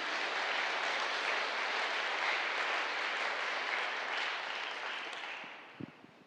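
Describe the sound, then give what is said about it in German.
Sustained applause from a large audience, a dense wash of clapping that holds steady for several seconds before tapering off near the end, with a couple of isolated claps trailing. “Lass uns ihm mal einen Applaus geben.”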